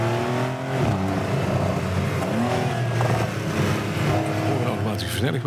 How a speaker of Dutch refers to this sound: Ja, we testen de Porsche 911, de 992. Daar gaat hij.